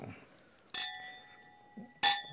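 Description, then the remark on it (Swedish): Two bright glass clinks about a second apart as glasses are raised in a toast, each leaving a clear, sustained ringing tone that slowly fades, with a faint murmur of voices at the start. “Skål hörni på den skål, saken! Skål, skål.”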